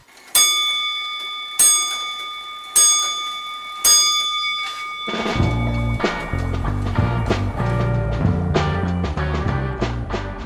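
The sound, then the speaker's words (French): Four evenly spaced radio time-signal pips ring out about a second apart, each a clear, bright tone with a short fading tail, before dense music comes in underneath and takes over, introducing the journal de la création sonore on the show Récréation Sonore. “Au quatrième top, il sera temps d'écouter le journal de la création sonore.”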